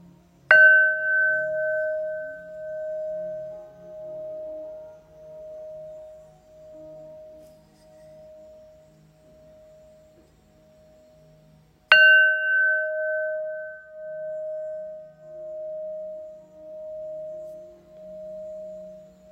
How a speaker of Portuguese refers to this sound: Concentre-se nos comandos no toque do sino tibetano